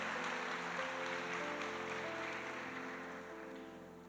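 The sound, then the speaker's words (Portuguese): A church audience claps continuously in a dense, steady wash of applause for Jesus, with sustained instrumental tones humming underneath, easing off slightly toward the end. “E a igreja diga amém, amém, e dê uma salva de palmas para Jesus, para glorificar o nome dele.”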